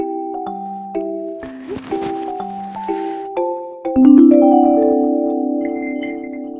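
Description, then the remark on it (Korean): A series of bell tones rings out in a stepping melodic pattern, clear, ending in a louder sustained chime that slowly fades; no voices are heard. “어, 종소리. 어, 종소리가 또 들려.”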